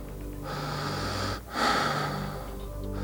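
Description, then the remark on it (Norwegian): Heavy, labored breathing: a long, rasping, strained breath, a brief catch in the middle, then another harsh, effortful draw of air, loud and with no voices. “Og Denne giften ødelegger etter hvert slimhinnene i luftveiene, og etter to-tre dager blir det veldig vanskelig å puste, fordi det døde slimvevet blir til en seig, grå masse.”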